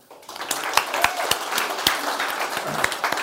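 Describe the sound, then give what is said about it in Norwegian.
An audience breaks into applause for Gjermund, creator of the Emmy-winning TV series Mammon: a dense wash of many hands clapping with a few sharper individual claps standing out, steady and fairly loud for a few seconds. “Applaus til Gjermund.”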